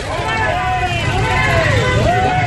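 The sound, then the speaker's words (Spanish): A loud, crowded street in Uribia, La Guajira: steady crowd chatter and traffic rumble, with horn and siren tones wavering and gliding over the din throughout. “Pitos, sirenas.”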